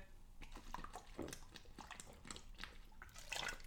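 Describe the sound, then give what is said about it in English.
Someone takes a drink of Ribena cordial, with a few quiet wet slurps and swallows spread irregularly over a few seconds, faint and liquid-sounding with no talking. “But um, yeah, I'm going to have a quick drink before we get into um, the Ring of Honor 19th anniversary show review.”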